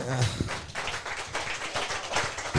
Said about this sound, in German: kleiner Applaus.